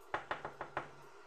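Five quick knocks on a door, evenly spaced in a brisk rhythm, clear, with the first and last raps slightly louder, then silence.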